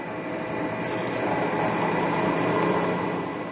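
A drill bores into hard material with a steady, continuous whirring grind, close up and fairly loud, holding an even tone for the whole stretch with no voices.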